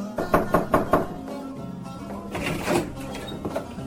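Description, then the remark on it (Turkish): Four quick, evenly spaced knocks rap on Nasreddin Hodja's wooden door as a neighbor comes calling with an empty glass, crisp, followed by a couple of softer thuds against a faint background hum. “Nasrettin Hoca'nın kapısı çalınmış, hoca kalkıp açmış ve komşusunu elinde boş bir bardakla görmüş.”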